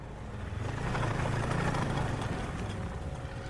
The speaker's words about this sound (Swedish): En gubbe på dryga 80 år kommer på en monsterskoter dundrande genom snödrivor och nysnö så att det yrde.